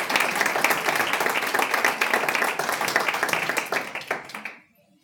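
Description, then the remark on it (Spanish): A crowd applauds a preaching pastor steadily for several seconds, a dense wash of many hands clapping, thinning out and stopping abruptly near the end. “¿A quién estás aplaudiendo cuando aplaudes?”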